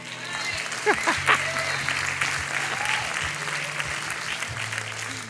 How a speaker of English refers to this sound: Some of you are not clapping, and I saw, okay?